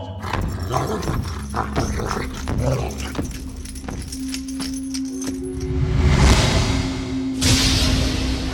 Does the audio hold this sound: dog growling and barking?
yes